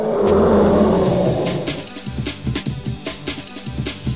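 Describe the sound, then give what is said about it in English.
A loud whooshing swish of a car passing a microphone on wet pavement, blended with deep, rough elephant growls that rumble on in pulsing bursts after the pass fades; the two elements used to make the TIE Fighter sound. “The first being the sound of a car passing by a microphone on wet pavement. And then layered on top of that are these elephant growls, these horrible elephant growls.”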